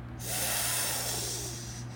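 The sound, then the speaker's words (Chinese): In a children's story, a voice imitates Botai sucking blood: a long, breathy sucking slurp, one continuous hissing draw of air that holds steady for nearly two seconds before cutting off, with no speech. “这是波泰吸血的声音。”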